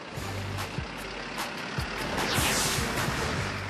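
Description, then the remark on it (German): Heavy trucks loaded with machines and car parts bound for Russia and Poland start up, engines rumbling with a steady low drone and scattered clanks, the noise swelling midway as they pull away amid broad traffic hiss; no one speaks. “Die ersten Lkw starten mit Maschinen und Autoteilen nach Russland und Polen.”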